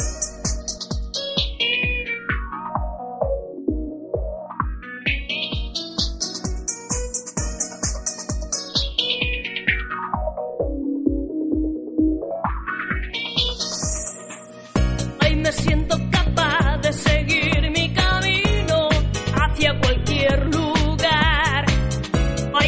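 A song plays on its own as a music break, opening with a steady pulsing beat under a filter sweeping down, up and down again, then bursting into a fuller, denser arrangement for its final stretch.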